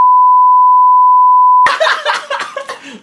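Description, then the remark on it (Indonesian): A steady, high-pitched censor bleep holds one unbroken tone for about a second and a half, then cuts off abruptly into a loud, dense burst of noisy sound. “Bip bip itu kayak sensor.”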